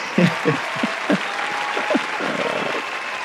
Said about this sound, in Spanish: Mira para allá, ponte un aplauso ahí, un aplauso, ¿sabes?